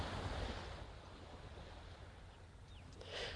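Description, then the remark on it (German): Ocean waves wash steadily onto the shore in a broad, continuous rush of surf, with a swell building louder toward the end and no voices present. “Und du hörst schon die Wellen. Es wird lauter.”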